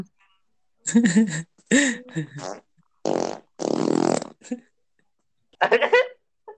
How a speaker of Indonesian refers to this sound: lu kentut Lu kentutnya, Demi apapun.